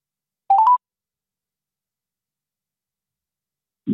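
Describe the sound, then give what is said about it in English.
A quick run of three short, mid-pitched phone dialing tones, each stepping slightly higher, followed by a long silence and a brief low rumble at the very end. “Hopefully, it starts ringing.”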